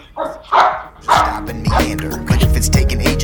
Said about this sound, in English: That's my dog.